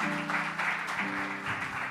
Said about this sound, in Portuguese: Uma salva de palmas para eles, pessoal. Obrigado pela participação de vocês.